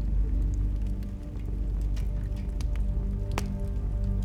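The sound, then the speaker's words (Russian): Wet, squelching biting and greedy gulping sounds of someone biting into a dead man's slit throat and drinking his blood, with scattered sticky clicks and drips over a steady low rumble; no voices. “впилась зубами в распоротую глотку покойного и стала жадно пить его кровь до тех пор, пока ее не осталось ни капли.”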